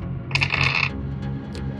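A quick burst of hard, rattling clatter as four dice are rolled for a bluff roll and tumble across a surface, followed by a couple of faint settling clicks over a low background hum.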